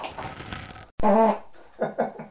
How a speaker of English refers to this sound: okay, did we hear that? That might have been the first fart.